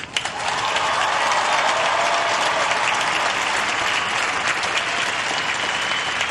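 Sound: crowd applause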